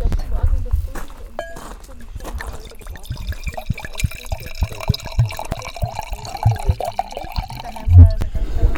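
Wine is poured into glasses with a gurgling, trickling sound amid clinks and a busy background of people chatting, on a terrace in front of a villa in Tuscany, south of Siena.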